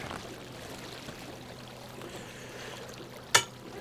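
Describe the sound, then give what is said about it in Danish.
Quiet, steady lapping and trickling of water against a sailboat hull as it glides slowly at about two knots in light wind of about 1 m/s under self-steering, with forest on both sides. One brief sharp slap near the end. No voices. “Vi glider lige så stille afsted.”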